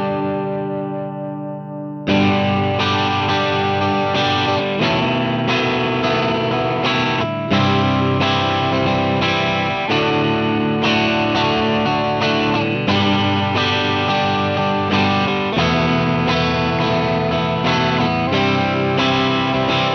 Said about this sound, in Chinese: 一块是几乎所有的吉他手都会用到的 Tube Screamer，另外一块呢，就是现在被炒到天价的人马。把它们分别串在 Marshall JTM 四五的箱头前面，先听听看 TS 的声音。